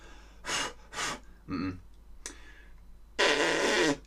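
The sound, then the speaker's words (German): Someone blows air forcefully from the mouth, showing the air needed for wind instruments, in several breathy bursts: two short puffs, a rougher sputtering one, a brief faint one, then a longer, louder sustained blast. “Das ist Luft für Blasinstrumente.”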